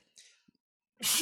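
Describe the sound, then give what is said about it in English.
A quick breathy intake, a brief pause, then one loud sneeze that bursts out sharply and cuts off at the end. “bless you.”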